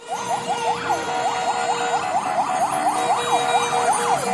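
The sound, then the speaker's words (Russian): Car horns blare continuously in a busy street in Minsk during a protest action, with steady tones layered under rapid warbling, siren-like wails that rise and fall repeatedly. No one speaks. “Это гудит протестный Минск.”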